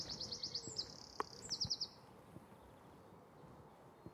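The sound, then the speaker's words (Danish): A Eurasian wren sings: high, rapid trilling song in quick bursts of repeated notes during the first two seconds, clear, then fading to quiet outdoor background. “Det er faktisk en gæresmutte. En af de mindste fugle, vi har.”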